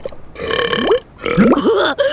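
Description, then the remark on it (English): A dog named Lalo lets out two loud burps in a row, burping up soap bubbles after licking puddles of strawberry shampoo at a dog wash; each is a gurgling, wavering belch with a short gap between them and no talking. “wow, those are some big bubbles, Lalo.”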